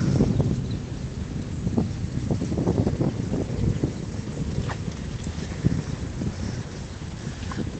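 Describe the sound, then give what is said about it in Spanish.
Steady splashing of outdoor fountain water under rumbling wind buffeting, with scattered splashes and a few faint chirps, likely starlings bathing. No one speaks. “Mira, aquí está la fuente esta que me gusta tanto porque vienen los... Yo no sé si son estorninos, los pajarillos estos a ducharse.”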